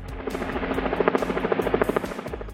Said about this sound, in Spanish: Fue ahí donde el grupo rebelde interceptó al buque y descendió a él por una cuerda desde un helicóptero.